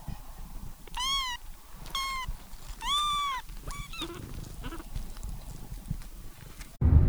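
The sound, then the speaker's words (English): Several high, wavering cat meows in quick succession, each a clear harmonic cry, over a low rumbling background with scattered softer mews, ending in a brief loud thump. “And we recorded some kitties.”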